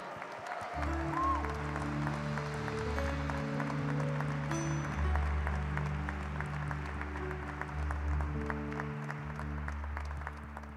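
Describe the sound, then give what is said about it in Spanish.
A church audience applauds Jesus loudly and steadily for several seconds, dense clapping from many hands over sustained organ or keyboard chords. “Sí, dale un fuerte aplauso a Él.”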